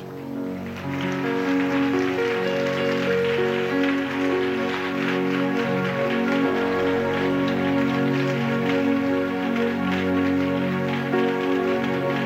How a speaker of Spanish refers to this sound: ¿Cuántos le agradecen al Señor? Dar un aplauso a Él.